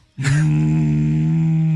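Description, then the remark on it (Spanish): A person's voice imitates a cow's moo, one deep, steady, droning note that starts abruptly and holds loud for over a second, with no talking. “Necesito sonido de vacas.”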